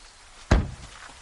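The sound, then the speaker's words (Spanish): A car trunk lid is shut after a bag is taken out, one heavy, low thunk that dies away quickly, with faint background hiss around it and no voices. “Walter baja del coche y se dirige al maletero. Lo abre, saca la bolsa y cierra.”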